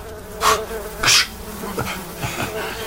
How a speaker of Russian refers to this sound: Ну вот посмотри на эту сковородку, брат. Жир над ней столь соблазнительный для мух привлекает их во множестве. Ну, попробуй отогнать их.